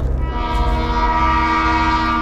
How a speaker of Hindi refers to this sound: तभी अचानक ट्रेन का सायरन बजा